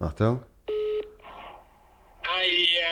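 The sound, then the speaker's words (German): A short speech fragment gives way to a steady, clear telephone ringing tone while calling someone's phone, which either gets answered or goes to voicemail. The tone lasts about a third of a second, followed by a soft rustle, then a voice picks up again. “warte jetzt, entweder nimmt er ab, dann ist blöd und sonst hörst du dann seine, seine Combox.”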